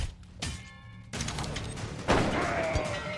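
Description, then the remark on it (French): Video game gunfire from deadly firearms, with several loud, sharp blasts spaced about a second apart over a dense, noisy action backdrop. It is punchy, with no one speaking. “deadly firearms.”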